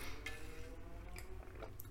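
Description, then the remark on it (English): Quiet mouth sounds of someone sipping water: a few soft, wet slurps and swallows spread across a couple of seconds, with no talking. “And goddamn, sorry, let me take a sip of water.”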